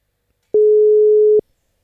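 A single steady telephone tone, like a ringback or line beep while a call is placed to a member of a band, holds one mid pitch for just under a second with abrupt start and stop, no voices.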